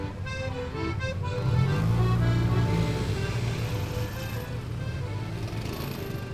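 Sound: city street traffic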